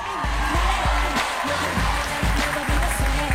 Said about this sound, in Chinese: 我就是想告诉你们，我们是一群有梦想的热血青年，请给我们掌声！